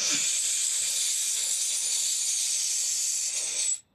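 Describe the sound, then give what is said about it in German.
A freediver draws a long, steady, airy deep inhale to fill the lungs, breathing into the sides of the lungs. The inhale runs continuously for nearly four seconds at even strength before cutting off abruptly. No talking over it. “Jetzt kann ich nur die Seite weiter einatmen.”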